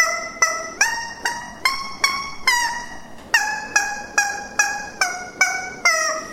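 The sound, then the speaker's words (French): A squeaky plastic chicken toy is played to honk out a rapid tune from The Barber of Seville, about fourteen sharp, pitched squawks in a steady rhythm with shifting notes, loud with no talking. “Et tiens, écoute-moi, après un an d'entraînement au poulet en plastique.”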